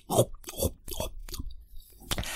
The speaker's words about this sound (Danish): Mens teenage-drengen gik ind på værelset, kunne hun høre, at hans far havde fundet noget andet kage og stod og begyndte at spise.